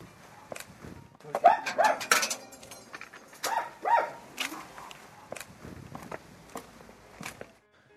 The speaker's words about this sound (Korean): 바람도 많이 불고 강아지 짖는 소리까지 섞여서 스산하고 어수선했지만 반가운 마음에 문을 열고 들어갔습니다.